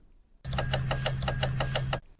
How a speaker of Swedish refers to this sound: Just det. Bältespåminnaren. En klassisk säkerhetsdetalj.